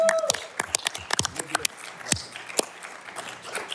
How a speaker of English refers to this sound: Yes. Big round of applause.